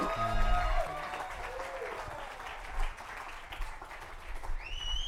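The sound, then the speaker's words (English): A church audience applauds steadily for several seconds to welcome a guest speaker and his family, a dense wash of clapping with a few cheers and whistles rising over it. “could we just give Papa Beau a warm welcome to Destiny Church”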